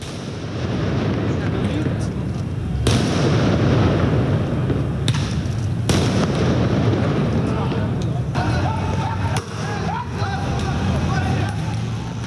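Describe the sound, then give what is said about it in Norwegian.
Several sharp firework bangs burst out at irregular intervals over a loud, continuous roar of a large crowd, with shouting voices blending into the dense background noise: protesters throwing fireworks and stones at police at night in Beirut, Lebanon. “Det du hører her, det er demonstranter som kaster fyrverkeri og stein på politiet, og politiet som svarer med tåregass og vannslanger.”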